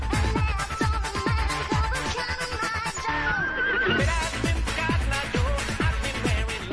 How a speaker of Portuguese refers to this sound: Tinha tem um cavalo na música. Sim. Você colocou umas músicas estranhas hoje. É, umas, umas baladas que eu gosto. Deus me livre, tem até um cavalo.